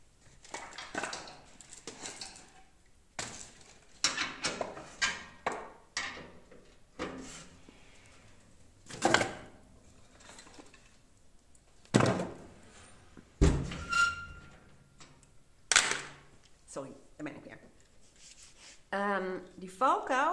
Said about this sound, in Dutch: Maar ik ga eerst heel eventjes de eh, open haard heel even bijvullen. Wacht even hoor.